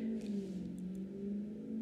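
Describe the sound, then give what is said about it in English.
A really loud car on a residential road drones steadily, a deep humming rumble that holds even for a couple of seconds with no one speaking. “there's a really loud car on my road.”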